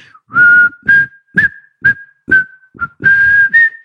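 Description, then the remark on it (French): A person whistles a short tune, a string of clear, steady notes with brief breathy gaps between them, some held longer, with no talking. “C'est assez la solitude également hein, de siffler.”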